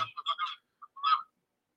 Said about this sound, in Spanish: Bájale el volumen, se está reciclando. El... Hay un bucle ahí con el sonido.